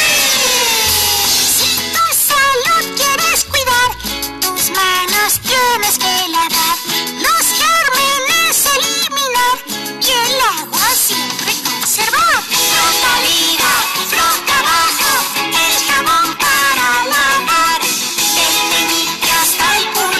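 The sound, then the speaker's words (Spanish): An upbeat, loud Spanish-language children's song about handwashing plays continuously, with a bright singing voice gliding over a steady bouncy bass and busy accompaniment throughout. “Mientras realizamos el lavado de manos, vamos a escuchar la siguiente canción.”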